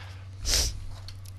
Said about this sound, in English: Don't sniffle. Sorry, my allergies.